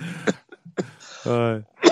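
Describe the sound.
A few sharp, raspy coughs come close together, broken up by a strained, drawn-out voiced sound in the middle before a final harsh cough. Close and fairly loud.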